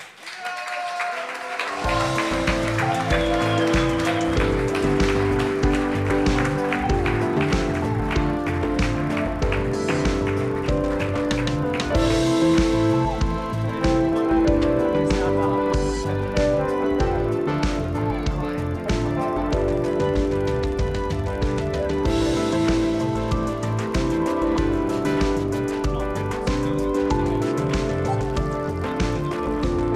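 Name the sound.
audience applause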